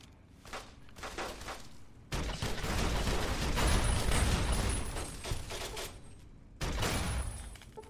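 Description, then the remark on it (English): Rapid 25mm high-explosive grenade fire in a video game, aimed at damaged Securitrons in a Securitron deconstruction facility: a few quieter bursts, then a loud, dense run of booming blasts lasting several seconds, a brief dip, and another heavy burst. “Alright, so those high explosive 25 mil grenades made fairly short work of the damage.”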